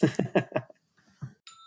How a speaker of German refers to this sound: Hoppla, was war das? Denn? Gut. Das sagt dir jetzt, mein... du musst los, oder wie? Nein, das war mein Wecker.